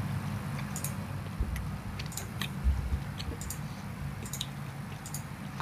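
Someone chews food, with irregular soft wet clicks and squishes over a low, steady background rumble. Nobody talks.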